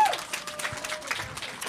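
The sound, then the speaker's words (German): A burst of applause from a small crowd, many hands clapping in a dense, steady patter at moderate volume for the whole short stretch, with a thin sustained whistle-like tone faintly underneath. “Also dann Applaus, Applaus, Applaus”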